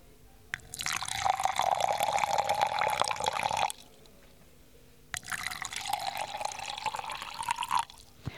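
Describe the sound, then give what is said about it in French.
Water is poured from one of three numbered bottles into a glass twice for a water tasting, each steady pour lasting about three seconds with a gurgling splash whose pitch rises as the glass fills. Fairly clear, with no talking. “nous avons euh, devant nous trois bouteilles d'eau numérotées 1, 2 et 3. nous allons vous faire goûter chacune de ces eaux et vous allez essayer de deviner laquelle est l'eau du robinet, laquelle est l'eau de source et laquelle est l'eau minérale.”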